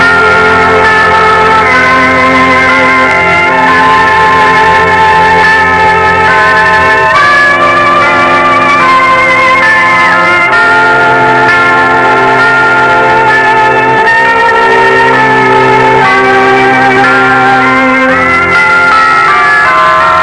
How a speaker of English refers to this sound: The lights are lowered, the cathedral bells toll their even song, and our story begins.